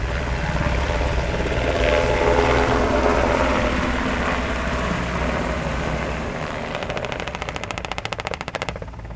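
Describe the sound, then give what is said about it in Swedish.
A Black Hawk helicopter flies in ranger battalion soldiers during a military demonstration, its loud, steady engine drone giving way to a rapid, pulsing thump of rotor blades as it nears. No one speaks. “De flygs först in med en Black Hawk-helikopter som eldunderstöder från luften.”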